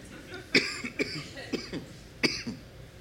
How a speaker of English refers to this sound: now I'm coughing, in case you didn't notice.